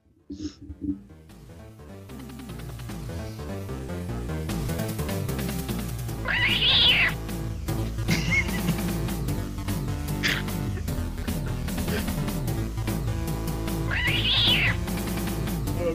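A cat meows twice, drawn-out and fairly loud, several seconds apart, over a dense, continuous backdrop of layered sound with no one talking.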